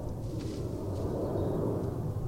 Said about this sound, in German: der Flughafen ist auch nicht so weit, das hört man gerade im Hintergrund.